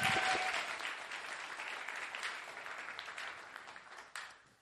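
An audience claps for an artist's artwork in a steady burst of applause, loud at the start with a few whistle-like tones, then gradually fading over several seconds; no one speaks.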